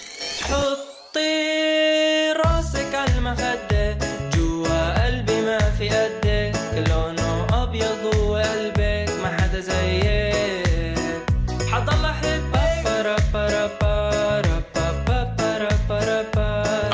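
A catchy, upbeat pop song, number three on the New Zealand chart, plays at full volume, with a steady driving beat, bright synths and a prominent melodic vocal line after a brief sparse intro.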